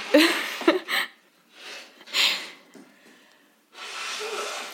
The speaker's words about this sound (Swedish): Hon är och snyter sig nu. Det blev för mycket känslor på morgonkvisten tror jag.